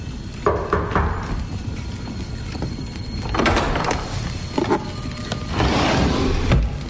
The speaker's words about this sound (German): wird ja auf jeden Fall was beiseite geschoben, eine Tür aufgeschoben oder irgendwas.